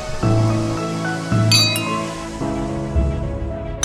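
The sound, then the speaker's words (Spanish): A bright clink of glasses touching in a toast rings out, with a second lighter chime right after, over steady low musical tones that swell in a few times. “¡Salud!”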